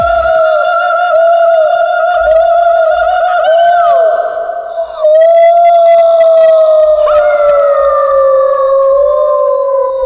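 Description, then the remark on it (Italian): A voice lets out a long, loud, wolf-like howl, held for about ten seconds with a brief break midway before the pitch slowly sinks. No talking. “Era, era tipo l'ululato di un lupo all'interno di una foresta”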